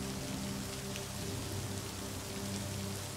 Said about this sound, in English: You are left with the clearing white noise of the rain to soothe you into sleep.